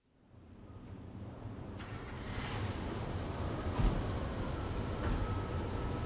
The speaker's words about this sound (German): Puh, ist das kalt und windig hier ja liebe hörerinnen und hörer heute stehen wir an einem wirklich kalten platz Seien Sie froh, dass Sie zu Hause vor Ihrem Radio sitzen. Wir sind hier in einer Wohnanlage in Rostock.